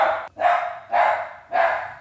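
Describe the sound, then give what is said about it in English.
A dog barks excitedly and loudly, letting out four quick barks in a rapid, insistent series with only brief gaps between them and no other voices. “Sorry, my dog is going crazy right now.”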